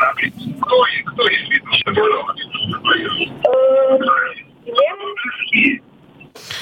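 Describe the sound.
Thin, band-limited telephone voices of a radio call-in quiz talk over one another, with a heavily delayed copy of the broadcast conversation, from a caller's radio receiver, echoing back through the phone line.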